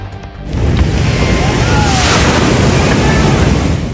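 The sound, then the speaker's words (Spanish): Heavy surf from a storm in California at the end of 2023 roars loudly and continuously, a dense wash of large crashing waves at high tide flooding everything in their path, mixed with gusting wind buffeting the microphone, building after a brief quieter start. “En California se preparaba ya para recibir el año nuevo, pero una tormenta perturbó su tranquilidad y fue azotada por grandes olas que inundaron todo a su paso.”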